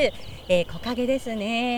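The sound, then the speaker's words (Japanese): A steady, high-pitched drone of cicadas buzzes continuously in summer woods behind the Biratori Town Ainu Culture Promotion Corporation, with a lake visible through the trees, while a person speaks over it. “いや本当にこうセミの声ですか季節ですね、ね、たくさん鳴いてますね焼き焼きの声がすごいですねアイヌ語でセミは焼きなんですね”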